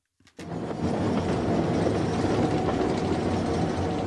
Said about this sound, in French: À la tête de son train de voyageurs, il traverse les hauts plateaux de la région des Causses, dans le Massif central. Une petite ligne tranquille, en pleine campagne.